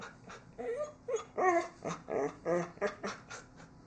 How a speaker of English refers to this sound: Hold on. We have a noisy dog. What? I already gave you a treat. Go away. Shoo.